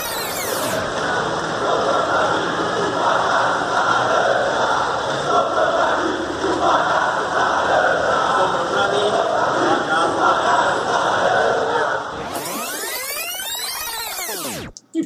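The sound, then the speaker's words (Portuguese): A huge stadium crowd of São Paulo football supporters sings the chant "Sobrou para mim o bagaço da laranja" together, loud and continuous with a dense roar of many voices, until it cuts off near the end and gives way to a brief swooping, warbling sweep. “a torcida do São Paulo canta Sobrou para mim o bagaço da laranja.”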